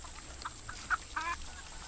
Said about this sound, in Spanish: Barnyard.